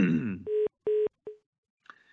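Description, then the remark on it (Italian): A voice trails off, then telephone line tones of an incoming call sound: two steady, fairly loud electronic beeps and a third clipped short, followed by a faint crackle. “Eh, altra telefonata, pronto chi è là?”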